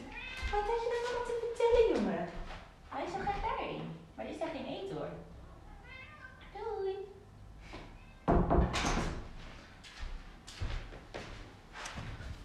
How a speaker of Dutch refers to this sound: Ik ga even een deur open doen hoor, want deze poes die is zo hard aan het miauwen.